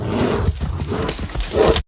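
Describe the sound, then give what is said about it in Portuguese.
A brown bear lets out a loud, rasping roar lasting about two seconds, deep and growly throughout, swelling again near the end before cutting off abruptly. “Opa, acabei de ser fodido por um urso, um urso marrom.”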